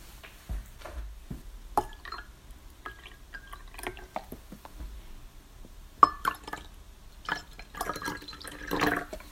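A drink is poured into a glass at Christmas, with scattered clinks and small splashes before a steadier trickle of liquid near the end, and no one talking.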